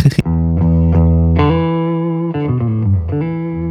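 A loud, distorted electric guitar, a Firebird, plays a short riff with a sharp opening attack, then sustained, buzzing notes that bend and shift pitch several times, with no voices.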